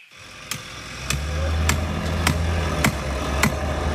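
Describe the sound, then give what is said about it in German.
Construction work in the city of Freiburg: a steady low engine-like drone of machinery, punctuated by sharp metallic strikes repeating about every half second, loud, with no talking. “Das, weil jetzt ein Führung gemacht kommt mit diversen Bauarbeiten.”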